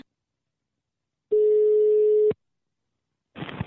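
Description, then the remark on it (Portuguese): A single steady ringback tone sounds for about a second on an outgoing phone call, a flat mid-pitched hum that cuts off abruptly, followed by a burst of line noise as the call connects. “é o seguinte, eu vou ligar agora”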